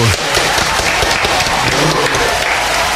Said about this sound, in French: dis donc, T'as des applaudissements, toi aussi tu triches dans ton live, hein